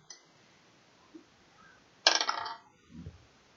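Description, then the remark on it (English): Five gold coins are thrown onto a pile during a game, giving a quick jangling cascade of metallic clinks that fades within half a second. A soft low thud follows. “Oh hell yeah, he's throwing five gold on, in a in the pile there.”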